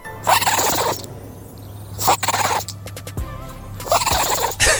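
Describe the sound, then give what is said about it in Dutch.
A chihuahua sneezes three times in a row, each a sharp, breathy burst a couple of seconds apart, with a faint steady hum in the background and no talking. “Een niezende, niezende chihuahua.”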